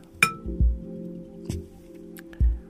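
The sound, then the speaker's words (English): A bell with bits of clay stuck on it in a few places is struck gently a few times with a wooden stick, giving dull, damped tones, each strike a soft knock followed by a short, muffled hum that dies away quickly instead of ringing. “The, the clay stick to the bell here and there on the bell block the flow of energy.”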